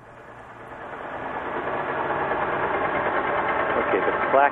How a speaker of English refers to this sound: noise is the sound of the ship. And, um, and eventually in this track, a, a blue whale comes along, but you can you can get a sense of how the ship is interfering with the sound that the, that the whale is making.